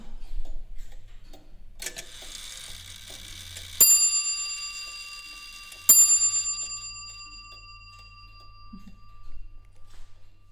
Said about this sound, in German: da läuft ein Rad so eine halbe Umdrehung ungefähr. Und äh, das ist der Anlauf, um den Hammer anzuheben, damit man auch schlagen kann, weil dieser Hammer ist ja recht schwer. Und da braucht man halt so einen, Vorlauf. Und äh, dafür ist die Warnung da.